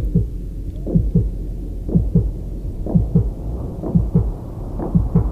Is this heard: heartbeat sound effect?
yes